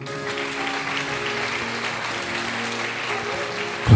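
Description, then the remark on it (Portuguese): A church audience applauds the Lord in a steady, dense wash of clapping, with a sustained low musical tone humming underneath and a louder burst right at the end. “Aplauda o Senhor, igreja.”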